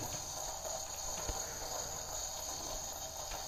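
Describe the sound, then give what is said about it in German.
A coffee pad machine hisses softly after being switched off once the cup is full, a steady, unbroken airy sizzle with a faint high whine running through it, with no voices. “Warten, bis dieses Zischeln vorbei ist.”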